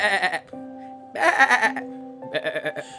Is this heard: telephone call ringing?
no